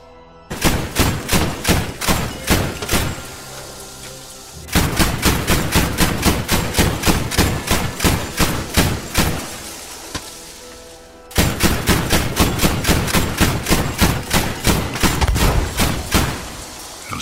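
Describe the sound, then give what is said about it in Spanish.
An anti-aircraft flak cannon being fired at deserters, in three sustained bursts of rapid, evenly spaced booming shots, each volley loud and sharp, separated by short pauses with a low rumble between. “Y entonces uno de sus subalternos se montó a un cañón antiaéreo, un flak muy popular en la época para destruir aviones, pero que en este caso iba a ser utilizado para destruir desertores.”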